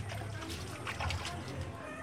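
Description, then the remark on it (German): Water sloshes and swirls continuously as a gold miner in Kenya stirs muddy water, made of ground rock from a mine tunnel, in a metal bowl with his bare hand, a fairly quiet churning with small splashes and trickles and no clear pauses. “Pascal Uma Okello sitzt vor einer Metallschüssel. Mit der bloßen Hand rührt er durch schlammiges Wasser.”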